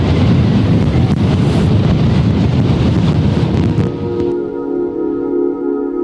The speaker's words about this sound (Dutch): Nou nee, na een dagje bijkomen moeten we ons na het weekend misschien weer schrap zetten voor een nieuwe storm. De wind houdt niet meer op, zo lijkt het.